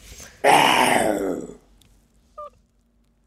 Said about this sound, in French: Je dirais qu'il est fâché, c'est une menace. Là. Ben, ça, c'est un tigre.